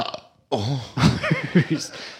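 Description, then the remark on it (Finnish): A person with heartburn burps, fairly loud, drawn out for over a second, its low croaky pitch wobbling and swelling in several pulses, following a brief breathy noise and a moment of silence. “Niin sä oot röyhtäillyt koko ajan, kun sua on vähän niin kuin närästänyt koko ajan tossa.”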